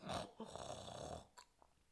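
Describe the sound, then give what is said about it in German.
A loud, rasping snore drawn out for just over a second, followed by a brief quieter snort as the breath trails off, unaccompanied by talk. “Schnell döste er ein, doch es dauerte nicht lange, da war er wieder hellwach, weil Karl-Heinz lautstark schnarchte.”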